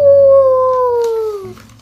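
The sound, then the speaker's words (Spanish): A single drawn-out wolf howl at the moon imitated by a human voice, loud, gliding slowly downward in pitch for about a second and a half before cutting off. “A veces hacían cosas de ovejas, como saltar por los prados, y a veces hacían cosas de lobo, como huyar a la luna.”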